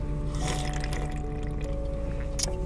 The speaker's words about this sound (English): We're going to take a, a drink of technology I use. it called an aluminum can. Aluminum can, sparkling water, it's tangerine flavored water. I'm going to drink the tangerine flavored water right now. It's sparkling water.